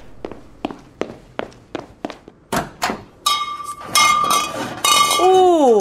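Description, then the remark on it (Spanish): A steady run of soft thuds like footsteps gives way to sharp clinks of glass bottles knocking together in a car trunk: bottles of wine, including Catena Zapata and Luigi Boschi, and some beers. The sound ends in bright, ringing glassy tones that waver and bend in pitch. No one speaks. “Abrí el baúl, agarrate un par de botellas que tengo ahí y arreglamos.”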